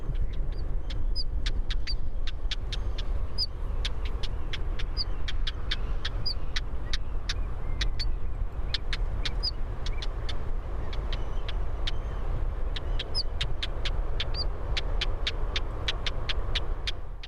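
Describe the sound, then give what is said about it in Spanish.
A small bird calls repeatedly in a steady, monotonous series of sharp clicks, each followed by a thin high whistle, over a constant low rumble of running water, recorded near water in the hills at mid-mountain level. “En esta ocasión nos hemos ido al monte o a media montaña, porque estamos aquí escuchando un pajarillo”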